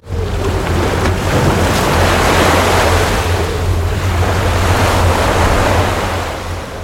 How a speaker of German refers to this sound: Meerblick, wir sind also an der Stallküste und können direkt auf die tosende See gucken. Jetzt, wo es Sturm hat, ist das natürlich ein krasses Schauspiel.